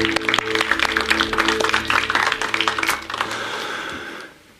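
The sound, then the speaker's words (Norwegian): A crowd claps in dense, steady applause over a low sustained hum, the clapping gradually thinning out and fading near the end; a church audience at a Frikirken service applauds the worship team after a time of worship. “Det er lov å klappe for dere.”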